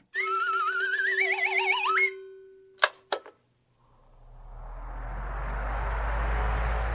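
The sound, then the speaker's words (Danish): After a short warbling electronic jingle, two sharp clicks sound, then an electric fan of the kind set on a table or floor on hot days whirs up to speed, its steady airy whoosh and low motor hum gradually growing louder. “Det er lyden af en elektrisk vifte.”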